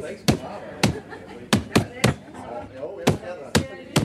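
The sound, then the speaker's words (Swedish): A paper bag holding a hamster is slammed hard by a woman against a cabinet about eight times in quick, uneven succession, each hit a sharp, loud smack, with a voice murmuring between the blows. “Eh, så morsan fick ta påsen och dra med allt vad hon kunde i ett ilskåp.”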